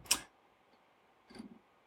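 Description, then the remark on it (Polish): A smartwatch alert to get moving: two brief, faint buzzing taps about a second apart, the second slightly longer and lower, otherwise quiet with no talking. “jeśli, jeśli, o teraz na przykład mój zegarek, o, bym się ruszył.”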